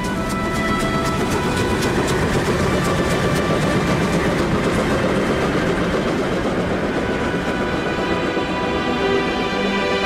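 A train rumbles steadily along the tracks, its wheels clattering in a continuous rhythmic clack over a deep, loud roar that fills the whole stretch without any voices.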